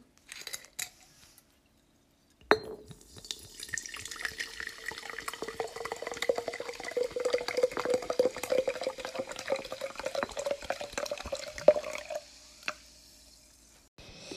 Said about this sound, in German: Wisst ihr, dann kommt jetzt einfach nochmal dieses Wasser, wenn ihr das. Ich frage mich, keine Ahnung, wenn ihr das so feiert, dann kommt das jetzt nochmal.